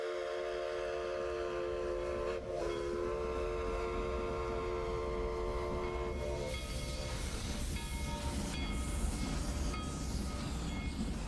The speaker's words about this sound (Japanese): 車内の揺れに身を任せんの少しの睡魔を持て余すのは、列車の旅の醍醐味なのかもしれません。